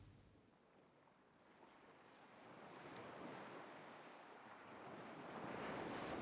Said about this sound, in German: Jetzt stehst du auf und schlenderst langsam von der Veranda hinunter und in die Richtung, aus der du das Meer rauschen hörst.